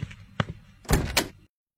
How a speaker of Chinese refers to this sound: 杜宾的声音从门外传来。杜宾怎么会过来？钟离犹豫了一下，还是起身开门。